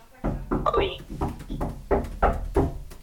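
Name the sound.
knocking on a door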